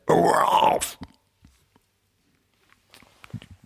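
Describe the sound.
A voice imitates a retching heave, as of someone bent over a toilet bowl vomiting: one loud, strained, guttural burst lasting about a second, followed by near silence and then faint shuffling and clicking noises.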